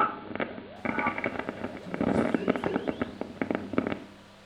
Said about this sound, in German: Also das war tatsächlich äh, ungefähr zweieinhalb Minuten echtes Lichtbogensender, ja. Sendesignal. Äh, dieses Spratzen und dieses so ein bisschen, ne, das kommt von dem Lichtbogen